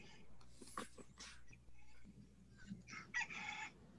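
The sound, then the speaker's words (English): A rooster crowing alarm tone plays as the speaker's alarm goes off, giving a couple of drawn-out cock-a-doodle-doo calls with a few short clucks in between. It sounds fairly quiet, over faint background noise. “That's my alarm.”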